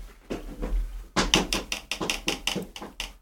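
A big bird taps on a hotel room window at night: a quick, steady series of about eight sharp taps, preceded by a few softer knocks, with no voices.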